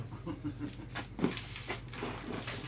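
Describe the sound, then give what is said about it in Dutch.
The small latch of a bathing-cabin changing door slides shut, locking the door, with a brief scraping rattle and a sharp click against a quiet background. “Het grendeltje dicht. De deur op slot.”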